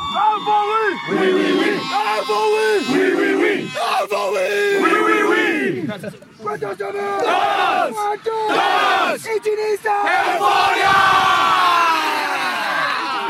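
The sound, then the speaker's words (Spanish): An Ultimate team at its final huddle shouts together in a loud, sustained final battle cry, with layered yells and whoops rising and falling in bursts, energetic, like a team chanting in unison. “Reunión final de Euforia su, grito final.”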